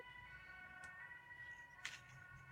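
A faint ambulance siren holds steady, layered tones throughout, over a low rumble, with a couple of brief clicks and no one talking.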